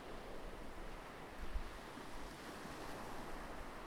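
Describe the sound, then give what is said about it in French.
Ocean waves wash steadily onto a seashore in a soft, continuous hiss with low rumble, one gentle surge swelling briefly; the surf is fairly quiet, with no voices. “Je vais te laisser le bruit des vagues pour quelques minutes quand je vais finir de te parler.”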